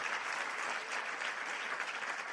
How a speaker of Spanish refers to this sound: Démosle un aplauso a Jesucristo.